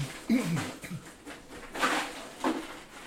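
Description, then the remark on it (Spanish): Ice clatters and shifts as a hand digs through a beer cooler, with a few crunchy, scraping bursts, the loudest rattles near the end, plus some faint squeaky, muffled sounds early on. “Es que, es que para que sepan, lo que están escuchando es que no mantiene la mala costumbre de poner la cerveza a la parte de abajo y echarle dos bolsas de hielo encima completa.”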